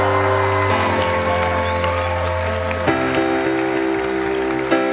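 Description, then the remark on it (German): Audience applause for Jesus in the evening, a steady wash of clapping that continues through the whole stretch, mixed under loud sustained keyboard chords that shift a couple of times. “Können wir Jesus einen riesen Applaus geben an diesem Abend?”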